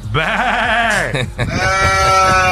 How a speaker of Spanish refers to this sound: antes hacemos sound check. Está por ahí la, la cabra Coscu.